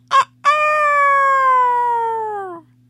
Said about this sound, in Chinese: 巴巴贝尔、巴巴利波和巴巴拉拉买了一只小猪，一只兔子，蹦蹦，一只公鸡。